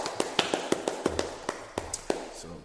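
Sharp, crisp hand claps land in a loose, uneven pattern, roughly a dozen over a couple of seconds, like a few people clapping with no talking over them.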